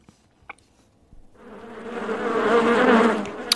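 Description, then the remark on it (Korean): A dense, droning buzz of a bee swarm swells in after a near-silent start, growing louder and fuller over a few seconds with a steady, humming texture and no voices. “윙윙 하는 벌떼 소리입니다.”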